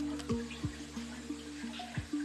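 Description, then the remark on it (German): Water trickles and splashes steadily as the water in an amphibian larvae tank at Cologne Zoo is changed, over a low, constant mechanical hum, with soft pulsing gurgles recurring every fraction of a second. Moderately quiet, with no voices. “Damit die stimmen, wird das Wasser mehrmals am Tag gewechselt.”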